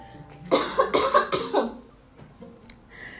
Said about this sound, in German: Ähm, sorry, ich muss husten.